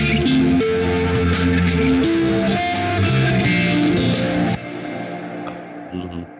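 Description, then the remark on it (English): A dense, distorted electric guitar track, reamped through a profiler head into distortion, plays steadily at high level with thick sustained chords and bright fizz, then drops in intensity for the final couple of seconds. “Everything into the distortion.”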